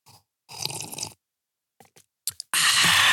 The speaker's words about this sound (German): Ich trinke mal kurz einen Schluck von meinem ja, Glühwein.